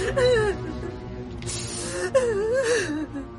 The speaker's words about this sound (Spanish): ¿Qué, qué pasa, mi amor? ¿Por qué está llorando?